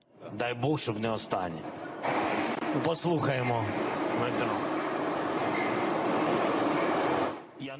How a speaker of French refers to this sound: Vous entendez ça C'est le métro.